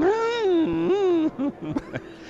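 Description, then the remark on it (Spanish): A person imitates a newborn baby camel crying: a long, wavering, nasal wail, breaking into a few short, choppy sobbing bursts at the end. “Dijo, el bebé está llorando mucho.”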